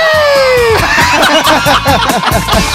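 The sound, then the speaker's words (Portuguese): A loud crowd of children shouting and squealing over one another in quick overlapping bursts, after a brief high whistle-like tone opens the moment. “a gente encerra o Cash que é com o som que o Luiz adora em todo momento, que são as crianças gritando”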